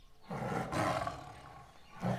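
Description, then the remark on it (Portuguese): A tiger leaping out from among trees in India lets out a loud, rumbling roar that swells, slowly fades into a growl, then surges again briefly at the end. No voices are heard. “De repente, um tigre saltou do meio das árvores.”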